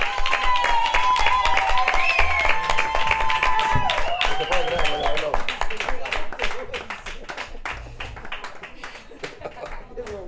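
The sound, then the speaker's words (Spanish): A crowd bursts into applause, dense clapping mixed with excited cheers and whistles, loud at first and gradually thinning out as the excitement fades. “Un aplauso grande para”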